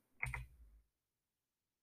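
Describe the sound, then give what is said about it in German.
Two quick, close-together clicks of a computer keyboard and mouse as a name is typed into an online event link and Next is clicked, followed by a brief low thud, then silence. Fairly quiet, with no one speaking. “Ich, ich gehe auf den Link, tippe meinen Namen ein, klicke auf Weiter.”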